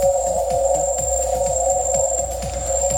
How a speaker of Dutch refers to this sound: En ja, je kent het geluid al van die fluitkikkertjes, toch?